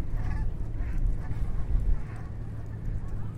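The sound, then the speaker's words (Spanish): A flock of Canada geese honks by the Lower Manhattan ferry terminal, several faint, repeated calls over a steady low rumble of wind or traffic, with no one speaking. “No sé si se ha podido escuchar el sonido de una bandada de... Eh, bandada de gansos de Canadá, Canadá Geese que suelen estar eh, por, estas, por estos prados, ¿no?”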